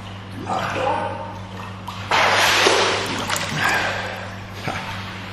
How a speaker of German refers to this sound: Und so eine Poolnudel, die kann man ja auch abschießen. Wenn ich jetzt unter Wasser drücke und dann loslasse